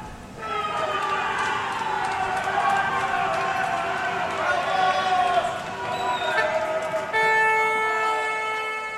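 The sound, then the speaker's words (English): A loud neighborhood crowd in Madrid, Spain, roars and cheers in a sustained celebration as the final whistle blows and Spain wins the World Cup, many voices shouting together while car horns blare steadily, swelling again near the end. “So, what does it sound like when an entire country holds its breath, then lets it out in one deafening collective cheer from coast to coast?”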